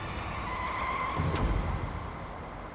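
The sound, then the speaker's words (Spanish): A car's deflated tires squeal and skid with a steady, harsh hiss as the car loses control on a bend, leaves the road and overturns, swelling into a louder rumbling scrape near the middle before fading slightly; no voices are heard. “Le ha deshinchado tantos las ruedas que el coche de Silvia pierde el control, y se sale de la carretera y vuelca.”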